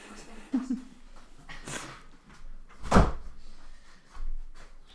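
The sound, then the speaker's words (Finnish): A door is bumped and pushed open by a pet, with a soft scrape followed by a sharp knock as it swings, amid quiet room noise and faint voices. “tajuu, miten ne saatan oven auki.”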